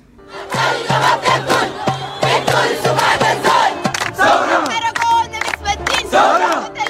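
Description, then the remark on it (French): A loud protest crowd, part of a movement carried especially by women, chants and shouts in rhythmic bursts, with a high-pitched woman's voice rising above the mass of voices as if leading the call. “Alors, la voix qu'on a entendue, il y a une voix féminine parmi tous ces, éclats de voix qu'on entendait bien.”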